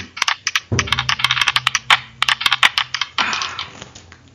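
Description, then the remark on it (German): Dice are rolled, clattering and tumbling across a hard surface in a quick run of sharp clicks and rattles, coming in a few bursts over several seconds with no talking. “Ähm, du würfel mal, komm, wir steigen gleich mal ein.”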